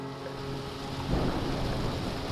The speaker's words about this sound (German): Ja, super. Regen, Blitz und Donner.